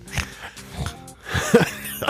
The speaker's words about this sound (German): dieses Schnarchgeräusch kam jetzt nicht von mir. Dieses Schnarchgeräusch wurde Ihnen eingespielt